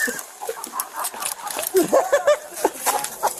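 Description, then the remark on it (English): A chicken clucks and squawks in quick, uneven bursts, agitated, as a police officer in Jonesboro tries to catch it, over a noisy outdoor background with scuffling. “here's the audio from that video of the cop there in Jonesboro trying to wrangle that chicken that kept eluding his grasp”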